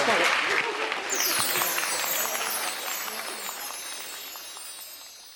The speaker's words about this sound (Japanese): メインスタッフの皆さんありがとうございます皆さんもう一度メインスタッフに拍手をお願いします拍手